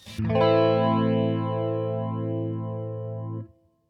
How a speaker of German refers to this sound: Das ist ja, ja der, der Chorus ohne das Clean-Signal. Ja. Das heißt, es bleibt eigentlich nur eine, eine Modulation der Tonhöhe übrig. Und das klingt dann vielleicht ungefähr so.